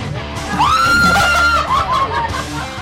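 A woman lets out a loud, high-pitched scream close by, held for about a second before tailing off into a few shorter wavering cries over a noisy background.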